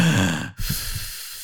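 Heavy, muffled breathing through a K95 face mask: one loud breath, a brief pause, then a longer, slightly softer breath, with no talking.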